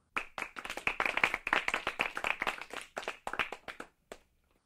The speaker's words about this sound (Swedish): Och vi har, först, vi har faktiskt fått vår första donator någonsin. Eh, applåd!